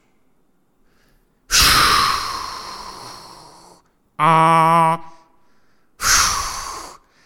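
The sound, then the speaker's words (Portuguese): A voice imitates the air suspension of a Lisbon city bus with a long, loud breathy hiss, then a short voiced "ah", then a second shorter hiss. “não ter de ouvir uh, a suspensão dos autocarros”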